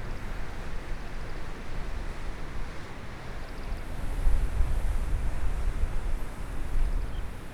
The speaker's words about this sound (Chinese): 你听见了吗？你有听到吗？海浪哎，就是海浪的声音。